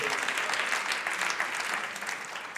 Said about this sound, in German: Ihr könnt ihm mal einen Applaus geben. Vielen Dank, am Beamerdienst, dass ihr das so toll macht.